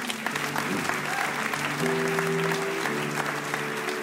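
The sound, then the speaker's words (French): A crowd claps steadily to applaud God, a dense, continuous wash of applause for about four seconds, with sustained low musical tones droning underneath and no speech over it. “Alors est-ce qu'on peut applaudir notre Dieu pour ça”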